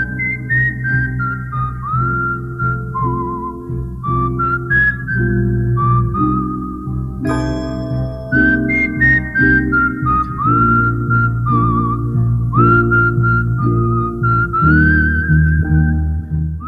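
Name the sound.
whistling a song melody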